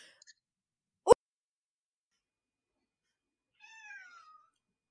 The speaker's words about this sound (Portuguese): um gatinho. É o meu, desculpa, gente. Não. Jamais pedi, me incomodarei com um gato.